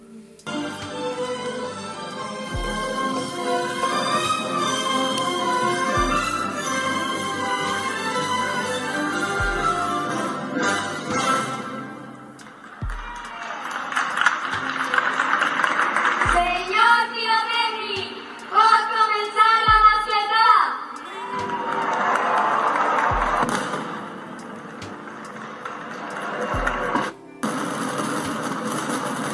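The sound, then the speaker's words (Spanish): Neighbours in Valencia play the anthem of Valencia, a brass-band piece with steady bass-drum thumps, then stage a mascletà with pots, pans and instruments instead of gunpowder: a dense, noisy clatter of banged cookware with scattered instrument notes and crowd voices mixed in. “y como vais a poder escuchar ahora os dejo un fragmento de unos vecinos poniendo el himno de Valencia y haciendo su mascletá en lugar de con pólvora con cacerolas y instrumentos.”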